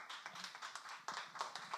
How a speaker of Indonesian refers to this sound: Terima kasih. Tepuk tangan dong.